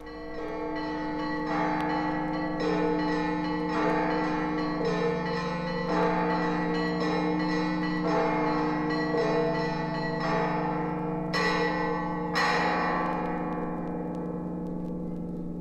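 Church bells of a church in Bethlehem ring out in a steady, overlapping peal, rich and resonant with a sustained hum beneath, continuing throughout with a few brighter clangs standing out near the end. No one speaks.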